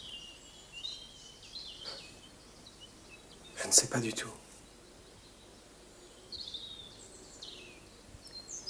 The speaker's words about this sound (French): Vous entendez les oiseaux Oui, c'est joli. Oui, c'est très joli.